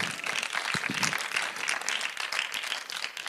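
A crowd applauds Mario steadily, a dense wash of many hands clapping at once, fairly loud and even throughout with no pauses and no voices standing out.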